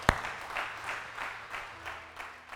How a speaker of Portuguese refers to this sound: Dá um aplauso aí.